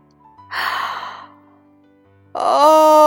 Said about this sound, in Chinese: 最后，他们来到了一个深深的黑洞旁边，里面像是有人刚刚睡醒，打了个哈欠。